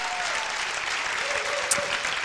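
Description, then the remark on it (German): A crowd applauds the volunteers steadily, dense clapping spreading evenly across the whole stretch at a fairly loud, constant level, with no talk heard over it. “Und oh, nochmal an alle Volunteers auch nochmal einen riesen Applaus.”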